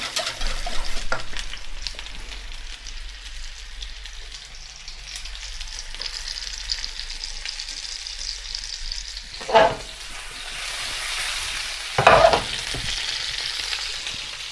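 Steady, hissing sizzle of chicken breast juices being added to a sauce in a hot pan, with a stirring utensil scraping and knocking twice, sharply, against the pan. No one speaks.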